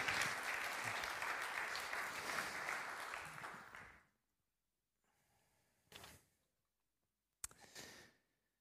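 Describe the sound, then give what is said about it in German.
A crowd claps steadily for about four seconds in applause for two acted scenes, then the applause fades out, followed by a short quiet gap and a couple of brief breathy noises. “Ein Applaus für die zwei Szenen.”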